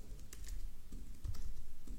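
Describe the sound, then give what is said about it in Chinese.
Steady typing on a computer keyboard: a quick, irregular run of soft clicking keystrokes with short bursts and brief pauses, heard on its own with no talking. “把握当下的确定性，一定是非常重要的话，我才会专门打字出来给大家。”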